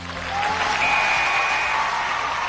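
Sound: audience applause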